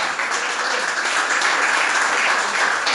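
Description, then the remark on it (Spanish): A church audience applauds for the Lord together, a dense and steady wash of many hands clapping at once, loud and sustained throughout with no voices standing out. “Déselo al Señor, les aplauso que se lo va a dar.”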